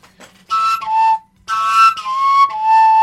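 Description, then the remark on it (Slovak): A fujara plays two breathy phrases of natural overtones, each starting with a bright burst and settling onto a sustained, slightly wavering high note, with a short pause between them and no talking. “No dnes už hudba sa e, na rozdiel od tradičných pišťalových a fujarových piesní nedáva taký dôraz na tie e, základné, ako súbežné, teda alikvotné tóny, ktoré dostaneš, keď chytíš oceaku, hej, na trubu”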